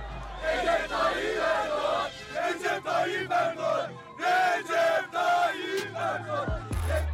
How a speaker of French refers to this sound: L'image du jour, c'est une foule en délire.